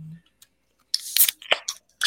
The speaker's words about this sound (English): it is Wednesday afternoon, so we are cracking beers.